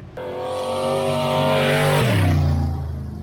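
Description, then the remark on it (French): A loud stock car engine roars, holding a steady high rev before the pitch drops sharply and settles into a lower growl, with no voices present. “Fait que là, on va rencontrer du monde qui font du stock car, mais du monde qui en font pour vrai là, depuis longtemps.”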